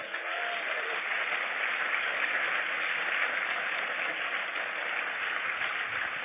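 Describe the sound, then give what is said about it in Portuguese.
A large crowd applauds the Lord steadily, a dense, sustained wash of clapping at even loudness for several seconds with no voices above it. “E eu quero que você aplaude o Senhor pela vida dela.”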